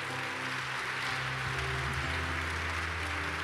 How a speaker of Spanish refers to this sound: Dale un fuerte aplauso.